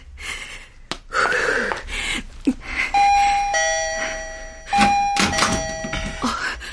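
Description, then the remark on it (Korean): A doorbell rings twice in a row, each a sustained two-tone electronic chime, loud and clear, following a few scattered thumps and rustling noises at the start. “왜 또눌러요 시끄럽게!”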